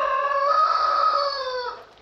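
A rooster, Chantelair, crows once on its dung heap, a loud, sustained cock-a-doodle-doo that holds steady for well over a second before trailing off, with no talking.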